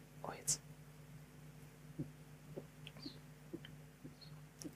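A bottle cap snaps open with a short hiss, followed by a series of soft, evenly spaced gulps of someone drinking over a quiet low hum.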